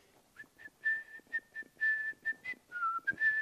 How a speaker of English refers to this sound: Is anybody ever been mad and whistling?